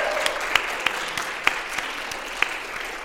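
An audience applauds steadily at a Princeton U.S. China Coalition event, a dense wash of clapping with a few sharper individual claps standing out, sustained evenly throughout with no voices.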